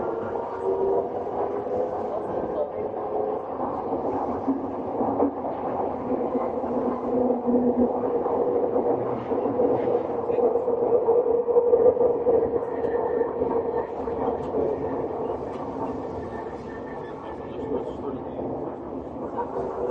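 A Tokyo Metro 7000 series train runs steadily between Shin-kiba and Nerima, its continuous low rumble overlaid with humming motor tones that waver slightly in pitch for the whole stretch, staying fairly loud throughout.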